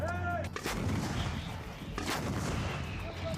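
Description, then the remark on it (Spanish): Heavy artillery and tank fire from Israeli tanks posted at the border, bombarding the Gaza Strip. It booms out in two deep, rumbling blasts about a second and a half apart, each followed by a long roaring wash of noise, with no voices present. “Israel mantiene apostados en la frontera a decenas de de soldados y tanques que han seguido bombardeando la franja.”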